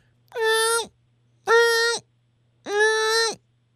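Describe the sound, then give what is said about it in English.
A person imitates a cat's meow three times, each a drawn-out, steady, nasal tone about half a second long, evenly spaced, with a faint low hum underneath. “Okay, so like it's normally it's meow.”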